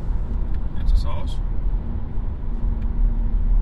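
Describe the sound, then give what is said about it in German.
Steady low rumble of road and engine noise inside a car driving at 70 km/h, constant throughout, with a man speaking briefly over it. “Jetzt fahre ich 70.”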